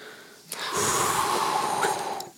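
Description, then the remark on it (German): A voice imitates the howling snowstorm heard on an album intro with a long, breathy, whooshing exhale, sustained and fairly loud for about two seconds. “auf dem Intro mhm. ist so ein Schneesturm zu hören und so. Wie klingt und, ein Schneesturm?”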